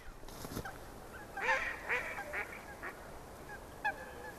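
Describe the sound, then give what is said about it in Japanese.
Waterfowl, including white swans, honk and call in a loose series of several hoarse cries, some overlapping, on an emerald-green lake partly frozen with thin ice at its edges amid snow, against a quiet, faintly breezy outdoor background. “で、あの、ね、水鳥が、はいはい白鳥も来てますね真っ白な鳥がいますね優雅に泳いでる、ねはい、ああ鳥の声聞こえますかね”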